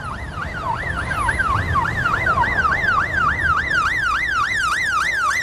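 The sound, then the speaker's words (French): A gendarmerie police siren sweeps rapidly up and down in a steady, high-pitched yelping wail, repeating about twice per second over a low rumble of road traffic. No one speaks. “C'est la gendarmerie.”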